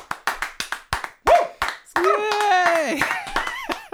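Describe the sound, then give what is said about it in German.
Around ten sharp, steady hand claps ring out in a brisk rhythm, then a loud, drawn-out voice joins in, whooping or cheering over the last few claps. “Also auch ihr da draußen, ey, klatscht mal jetzt.”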